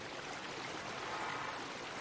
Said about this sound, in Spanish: Las altas coníferas dan sombra y a lo lejos hay una cascada.